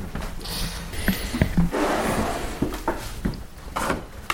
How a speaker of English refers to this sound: Um, if I just pull this drawer open, and uh, I'll uh, show you what we've got.